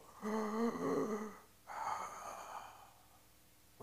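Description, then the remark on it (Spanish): A voice makes two breathy, drawn-out exhalations, the first slightly voiced and the second a softer airy rush, imitating how the Hebrew verb 'to be', the name of God revealed in Exodus, is said to sound like a breath. “como fue revelado allá en Éxodo, eh, eh, eh, viene del verbo ser y la pronunciación de ese verbo en el hebreo es tan complicado que dicen los expertos suena como un respiro.”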